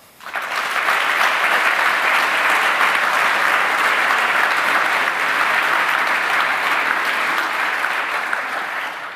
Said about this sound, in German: Dein Applaus.